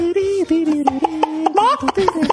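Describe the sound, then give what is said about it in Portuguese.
A person imitates a chicken with a run of short, rhythmic vocal clucks and squawks, fairly loud, with pitch jumping up at the end, done as an animal-imitation challenge at a circus. “imita um mosquito para nós. Uma galinha.”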